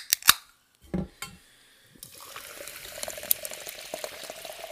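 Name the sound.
sparkling water fizzing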